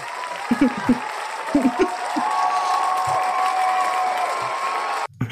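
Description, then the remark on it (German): A crowd applauds steadily for several seconds, a dense, even wash of clapping with a few low voices and calls underneath, before it cuts off abruptly at the end. “so, Sorry, den langen Applaus genommen.”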